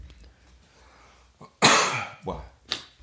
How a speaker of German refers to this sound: Entschuldigung, ich muss mal niesen,